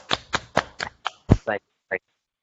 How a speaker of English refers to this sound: And we salute you and give you a hand clap for that.